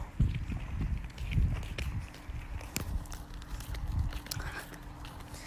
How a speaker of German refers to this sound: Vielleicht ist es für euch jetzt nicht so interessant, wie wir hier rumlatschen, deswegen stoppe ich mal kurz die Aufnahme und dann hören wir uns gleich wieder.